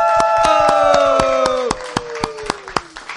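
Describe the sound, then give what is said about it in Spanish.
A live audience at Cultura Secuencial, a live show at The Bookmark, claps and cheers, with a loud drawn-out whoop sliding downward over steady applause, then the cheering fades into scattered, uneven claps. “todo el mundo gritando porque le está dando un sugar rush.”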